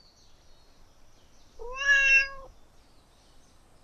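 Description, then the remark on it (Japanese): A single clear meow from a nekomata, a pure white two-tailed cat yokai with one black tail, drawn out for under a second with a rising then steady pitch, fairly loud against a quiet background. “猫じゃん。”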